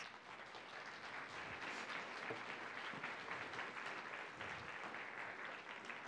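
An audience applauds for God, breaking into steady, sustained applause, many hands clapping together in a dense, even wash of sound that holds at a constant loudness throughout, with no voices standing out.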